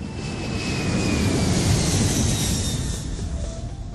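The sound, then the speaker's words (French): A steady, loud roar of an airplane passing overhead, its engine whine slowly dropping in pitch as it moves by, with no voices. “On peut soit venir en avion, comme moi quand je suis arrivée du Canada,”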